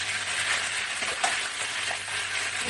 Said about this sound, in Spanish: pimiento, cachofa, zanahoria, ajito y el pollo a rehogar. Y le vamos a echar tomillo, romero y voy a utilizar arroz bomba.